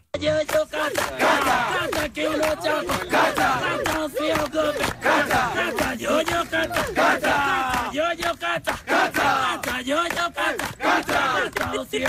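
A large group of men, around 60 porters and helpers, chanting together halfway up Mount Kilimanjaro in Africa, in loud, rhythmic unison, their voices rising and falling over steady beats, continuous throughout.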